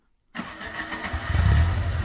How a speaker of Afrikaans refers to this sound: Almal bondel in die taxi in en die bestuurder skakel die enjin aan.